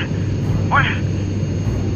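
airplane cabin engine drone

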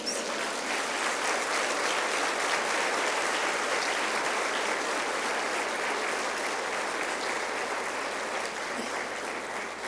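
audience applauding

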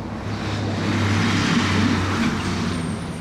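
city traffic noise

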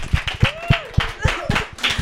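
clapping

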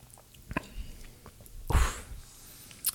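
sipping a drink

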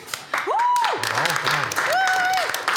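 audience applause

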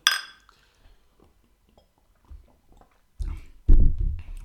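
beer bottles clinking

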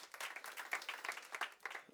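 audience clapping

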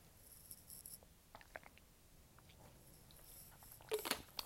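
sipping water

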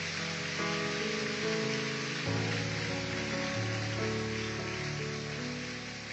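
audience applause

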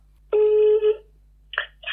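telephone dialing tones

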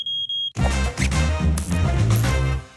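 smoke detector chirping

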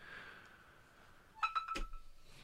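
mobile phone beeping

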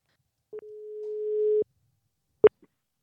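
telephone ringing tone

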